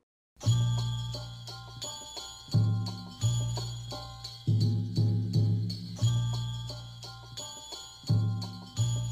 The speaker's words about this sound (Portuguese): Esse gongo meio chinês no fundo não é à toa.